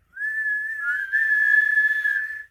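A whistle is blown in one long, steady tone lasting about two seconds, loud and close, with a slight waver partway through and no voices.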